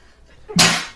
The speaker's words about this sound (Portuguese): Eita. Coronavírus. É, é não, espirro não é corona, né? Só tosse.